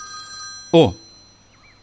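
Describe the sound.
A phone rings with a steady electronic tone that carries on through the whole moment, while a person lets out a short exclamation partway through.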